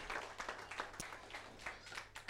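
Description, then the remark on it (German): Applause for Jesus from a standing audience at the end of a sermon, a fairly quiet, steady patter of many hands clapping with irregular rhythm and a few sharper individual claps standing out. “Geben wir Jesus einen Applaus.”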